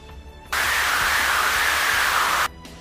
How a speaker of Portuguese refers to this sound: Um vulto de, de vento, como se ele estivesse entrando é, em um ambiente apertado. Que é aquele som quando a janela tá ventando muito e a janela tá entreaberta, né? Do, uhum. De vento forte Tu escuta isso, mas tu sabe que é de uma caverna.